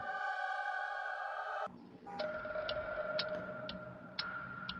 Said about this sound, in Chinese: 伴随着滴滴答答的钟声，张丽萍沉沉睡去。